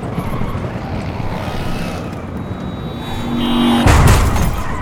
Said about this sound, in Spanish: Eran dos, así no se puede. Dos carros.